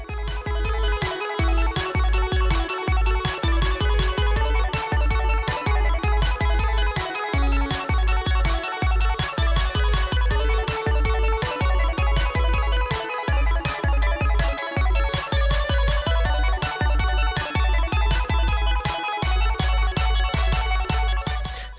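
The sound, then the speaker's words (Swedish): An upbeat electronic intro jingle plays loud and alone, a bright synth melody riding over a steady, punchy beat for about twenty seconds with no voices. “Men nog om det, vi kör igång introt.”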